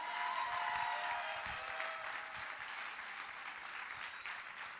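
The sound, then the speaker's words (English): An audience applauds and cheers in praise, a dense, sustained wash of clapping with a few voices calling out near the start, steady and fairly loud throughout. “If you believe it, give God some praise right now.”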